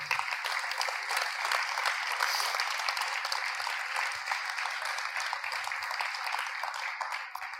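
Steady crowd applause fills the whole stretch as a man is invited up onto the stage. It is a dense wash of many hands clapping at an even, sustained level, with no voices standing out.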